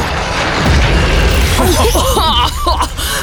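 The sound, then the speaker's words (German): A heavy, booming impact as a roaring Allosaurus, about two tons and nine metres long, charges a Stegosaurus, the ground shaking, with deep rumbling low end, followed by rising and falling roars or bellows layered over a sustained crashing rumble. “was für ein Aufprall! Oh, da bebt ja der Boden.”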